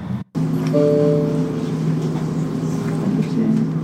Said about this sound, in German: Wir sitzen jetzt hoffentlich im richtigen Zug.